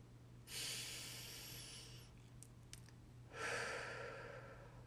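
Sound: deep exhalation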